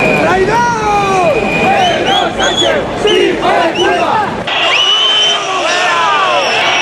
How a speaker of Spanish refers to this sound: abucheos al presidente del gobierno en funciones, Pedro Sánchez, empezaba y terminaba el desfile, un día que no es para abuchear, como dice en Onda Cero Jorge Azcón, presidente de Aragón.